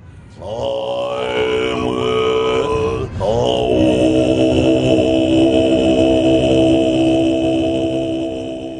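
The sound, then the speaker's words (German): A sustained throat-singing attempt: a low, buzzing drone with strong bright overtones, held continuously for several seconds with a brief break partway through, loud and without any speech. “Nach einiger Zeit habe ich dann herausgefunden, dass das, was ich hier versuche, als Kehlkopfgesang bezeichnet wird.”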